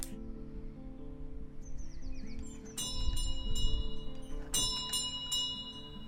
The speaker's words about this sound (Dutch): Hier klinkt een bel van 103 jaar oud. Het is de deurbel van de museumwoning in Vreewijk.